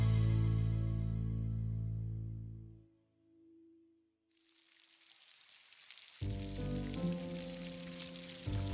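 Heavy rain pours down in a steady, rising hiss that emerges after a fading low tonal drone, with deep humming tones returning beneath the downpour near the end. The rain falls at Heneida Airport in Japan in the July rainy season of 1954, as planes take off and land.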